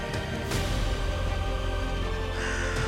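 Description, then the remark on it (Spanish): Crows caw harshly and repeatedly, several rough calls overlapping against a steady low background hum, with no voices present. “un par de cuervos mordían la parte alta de la herida abierta.”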